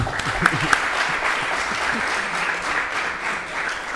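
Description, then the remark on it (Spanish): Audience applause fills the whole stretch, a steady dense patter of many hands clapping at an even loudness, with a couple of sharper individual claps near the start. “Un aplauso.”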